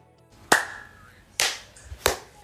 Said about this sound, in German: Ich habe auf eins geklatscht.